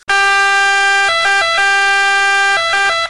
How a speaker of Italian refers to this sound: Mi è venuto in mente l'altro giorno perché stavo sentendo un'ambulanza intanto che ero parcheggiato. Ascoltate l'ambulanza.